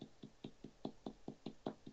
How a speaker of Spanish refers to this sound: Tocar madera, por favor.